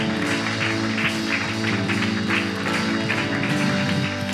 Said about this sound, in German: Lass uns Jesus mal einen Applaus geben. Lass uns ihm danken für seine Rettung.